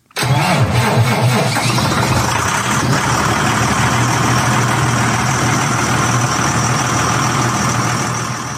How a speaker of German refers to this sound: Die Motorhaube vom 700 Vario sieht auf den ersten Blick aus wie die von der nächstgrößeren 900er Vario oder sogar 1000er Vario. Unter der Motorhaube brummt aber nicht wie vorher ein Deutz-Motor, sondern ein neuer Sechszylinder von Eco Power.